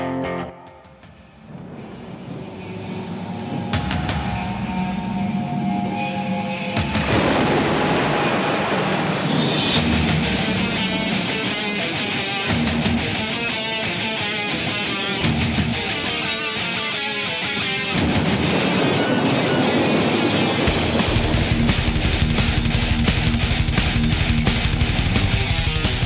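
A low rumble of thunder and rain opens, then loud distorted electric guitars and pounding drums surge in, building into a heavy, aggressive thrash metal intro that stays dense and intense throughout.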